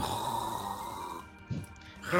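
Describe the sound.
A person imitates snoring: one drawn-out, rattling snore sound that fades, then a short breathy snort and a rising breath at the end.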